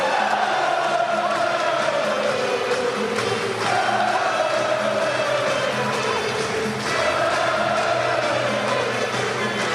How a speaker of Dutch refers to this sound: Net als hier in de Kuip. Massaal wordt gezongen. Gaat staan voor de kampioen.